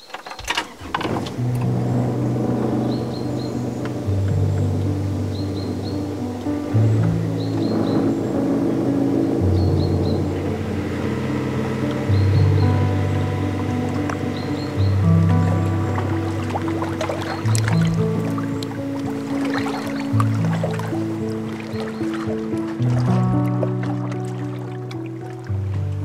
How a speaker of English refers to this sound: Will we uh, slip our moorings and go out into the lake for a moment? Yeah, certainly. Yeah, we'll start her up.